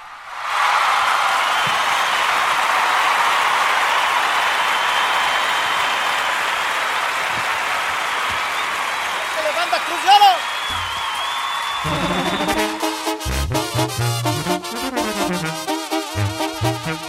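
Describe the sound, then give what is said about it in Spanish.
A loud crowd cheers and applauds steadily for about ten seconds, a dense wash of clapping and shouting that then gives way to music. “Quiero escuchar un grito, un, un aplauso.”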